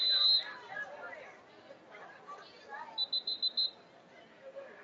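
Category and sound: signal or alarm, referee's whistle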